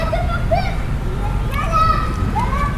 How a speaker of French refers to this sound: Il y a encore des enfants qui jouent au ballon sur la plaine Interception de ballon.